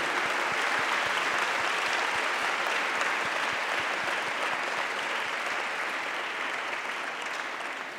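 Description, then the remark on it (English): Sustained applause from a large crowd for the Balavikas gurus (teachers), a dense, steady patter of many hands clapping at full volume for the whole stretch, fading only slightly toward the end, with no voices rising above it. “I think hats off to them, and we should give a big round of applause for all your gurus.”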